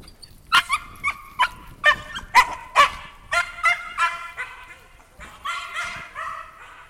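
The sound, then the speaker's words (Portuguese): A dog barks in a rapid series of sharp, high-pitched yaps, about a dozen in quick succession, then trails into a drawn-out whining whimper, fairly loud, during a walk with boarded dogs on a rural property. “sempre que tem um cachorro assim, eu paro, tá, galera?”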